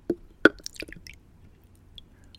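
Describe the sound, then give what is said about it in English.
Rum is poured into a small shot glass next to the microphone: a couple of sharp glassy knocks, then a short burst of wet, splashy trickling that quickly fades, with no talking. “Okay, see uh, if you can pour yours next to the microphone. I want to see if we can get the ASMR on there.”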